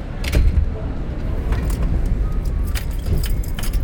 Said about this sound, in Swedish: Hon lägger bruna papperspåsar i en cykelkorg, låser upp cykeln som står lutad mot den gulröda fasaden och går iväg över gatstenarna.